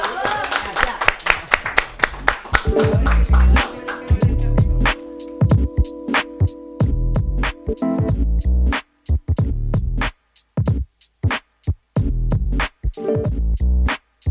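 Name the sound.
applause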